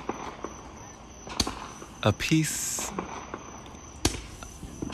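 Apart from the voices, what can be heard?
fireworks exploding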